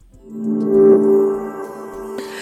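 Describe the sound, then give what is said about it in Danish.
A music track plays steadily with sustained harmonic tones and a low pulsing beat, fairly loud, with no voices over it. “nu skal vi høre et, mu- et musiknummer, som hedder … af …”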